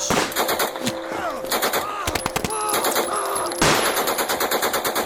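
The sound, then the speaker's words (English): Rapid bursts of machine-gun fire from startled German soldiers rattle throughout, with sharp repeated cracks in quick rhythmic clusters and a few louder single shots standing out, loud and continuous with no talking. “The startled Germans at last opened fire.”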